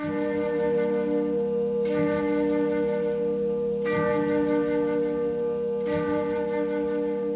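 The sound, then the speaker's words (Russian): The church bells of the Lavra monastery chime, struck roughly every two seconds in a steady rhythm, each strike ringing into a dense, sustained hum of overlapping tones that never fully fades between hits. No voices. “она быстро рассеивается от колокольного звона лавры.”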